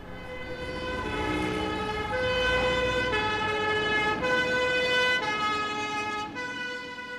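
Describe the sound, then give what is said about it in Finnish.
An ambulance siren at night in central Paris sounds steadily, a loud two-tone wail alternating between a higher and a lower pitch about once a second, with no voices and a low rumble of traffic beneath it. “Hälytys ajoneuvolta yöllä Pariisin keskustassa.”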